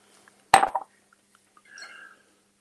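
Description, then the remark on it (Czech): A sharp glass clink, then a brief quiet gurgle of whisky being poured from a bottle of 18-year-old Glendronach Allardyce into a glass, with no talking. “Asi můžu něco nalít, nevím, jestli mě slyší někdo.”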